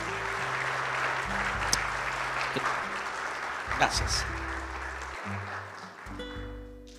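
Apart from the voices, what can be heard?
audience applause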